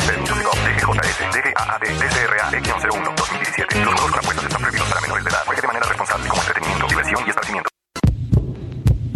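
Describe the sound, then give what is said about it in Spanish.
A deep, steady heartbeat thumps loudly beneath a dense, busy musical bed. The sound cuts out briefly near the end, then resumes more sparsely. “¿Escuchas? Es el corazón morado y amarillo de todos los mexicanos.”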